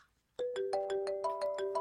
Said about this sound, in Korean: 저기 전화 온 것 같은데요.